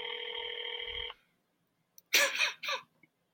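A steady electronic phone ringback tone hums for about a second as a phone call is placed, then cuts off into silence, followed by a couple of brief, rustling noise bursts on the microphone.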